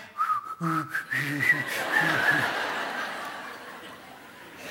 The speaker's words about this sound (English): and then you learn to whistle. You were six years old. And you'd been trying for months. And finally, you got a sound out. and your eyes nearly fell out of your head. I can whistle. And it had a bit of voice in it when it went.